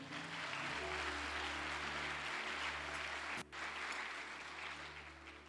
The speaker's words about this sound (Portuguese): Se você pode aplaudir o nome dele aí.